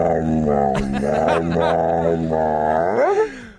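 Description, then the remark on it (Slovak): A dog howls in long, wavering, drawn-out tones that rise and fall, with a final upward swoop before fading out. It sounds fairly loud, with no talking. “Máme tam aj psa.”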